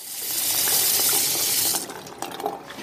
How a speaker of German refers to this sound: Und dazu gehört auch das Buchenholz, aus dem das Waschbecken gefertigt wurde, in das sie jetzt Wasser sprudeln lässt.